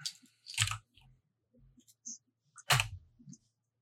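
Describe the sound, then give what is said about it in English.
A handful of dice, 13 or 16 of them, clatters onto a hard surface in two loud rattling bursts, with scattered small clicks and knocks between them. “All right, uh, right, um, and then you are rolling bunch of dice.”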